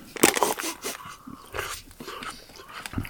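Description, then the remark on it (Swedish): Crunchy snack being chewed close to the microphone, with a series of sharp, crackling bites and grinding crunches at an irregular pace, fairly loud and with no talking. “Jag ska försöka att inte äta dem hela tiden under... Så att det inte låter.”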